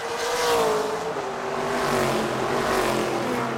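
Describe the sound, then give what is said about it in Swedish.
A racing car engine roars loudly and steadily, its pitch gliding down then climbing as it revs past at speed, with no voices present. “Många säger att sport inte är något mer än att sparka boll, hoppa högt, pricka en korg eller köra snabba bilar.”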